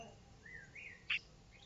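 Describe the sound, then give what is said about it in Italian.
A blackbird named Cico sings a short chirping phrase: a couple of thin, rising whistled notes followed by one sharper, louder chirp, heard fairly faintly over quiet background hiss with no talking. “Ma sembra che, non lo so, che canti uno stacchetto.”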